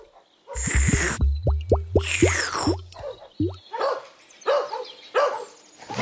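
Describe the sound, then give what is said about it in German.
An approaching dog barks in a quick, loud series of sharp yaps, then lets out a few more scattered barks with brief pauses between them. “Der niedliche Hund, der da kommt.”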